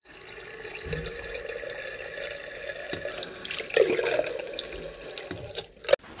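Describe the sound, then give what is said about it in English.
Cold water runs steadily from a tap, run through to bring the temperature down before yeast is added, a continuous splashing rush with small clinks and a sharp knock near the end; no one speaks. “How we going to do that, we're going to filter the water right through it, cold water right through it to get the temperature down.”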